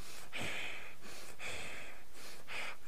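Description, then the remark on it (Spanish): A voice imitates another person's heavy breathing heard beside the camera in a video, with three loud, raspy breaths in a slow steady rhythm and no talking. “Y se escuchaba como otra persona al lado de la cámara que respiraba como...”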